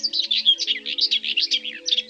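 A common whitethroat sings a fast, scratchy, continuous warble of bright chattering notes for a couple of seconds, clear, with soft sustained low tones humming steadily underneath.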